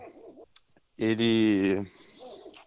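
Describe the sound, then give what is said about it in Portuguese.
A dog lets out a single loud, drawn-out cry lasting under a second, breaking into a man's speech, which resumes quietly right after. “desculpa pelo cachorro.”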